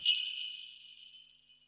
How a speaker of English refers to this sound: So as soon as you hear a post ad sleigh bell